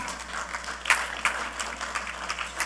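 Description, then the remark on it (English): An audience applauds, a steady crackle of many hands clapping with a few sharper claps standing out, with no voices over it. “You could applaud there.”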